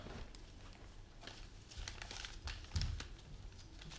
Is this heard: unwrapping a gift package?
yes